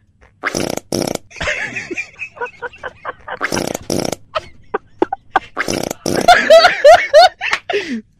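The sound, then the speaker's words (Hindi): A rapid series of loud, rasping fart sounds played in the right ear, some short and some drawn out with a buzzy flutter, followed by squeaky high-pitched farts and what sounds like laughter. “सूंघना नहीं सूंघना नहीं है सिर्फ सुनना चौथा अध्याय भी है इसका आधा पादा ये क्या पादा ये क्या पादा दाहिने कान में हाँ।”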